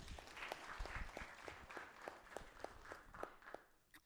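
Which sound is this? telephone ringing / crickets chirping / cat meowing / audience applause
audience applause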